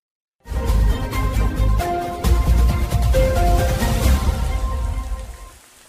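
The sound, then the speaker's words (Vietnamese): August midday rain pours down steadily over a flood-resettlement residential area in Mái Dầm town, Châu Thành district, Hậu Giang province, a dense wash of drops drumming on surfaces with no voices, easing off only at the very end. “Cơn mưa tháng 8 vẫn rã rít giữa trưa, khi lất phất nhưng thỉnh thoảng lại ào ào nặng hạt, khiến những lối đi trong khu dân cư vượt lũ ở thị trấn Mái Dầm, huyện Châu Thành, tỉnh Hậu Giang càng thêm vắng vẻ.”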